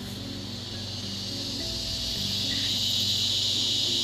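A steady, high-pitched chorus of crickets chirping fills the background, growing louder partway through, over a low rumbling hum like an idling car.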